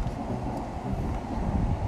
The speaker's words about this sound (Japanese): 天候も気持ちいい風が吹いてますし、えー、歩いて帰るのがなんか、まあ、歩くことが苦じゃないんで歩いて帰ってますけれども